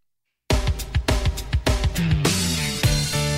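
A short burst of rock music starts after a brief silence: punchy kick drums and bass on a steady beat, then the full band with guitars swells in, loud.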